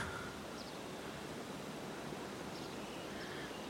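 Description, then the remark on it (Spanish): Steady outdoor wind rushes throughout, a dense airy hiss with faint, high whistling tones drifting in and out. No one speaks; the wind fills the whole short stretch at an even level. “El viento silba a nuestro alrededor”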